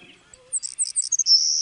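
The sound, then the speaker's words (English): A savannah sparrow's high, buzzing song: a few short thin chips and trills, then a long insect-like buzz at the end. Clear, with nothing else around it. “And birds like this savannah sparrow, they tend to have a buzzing type call.”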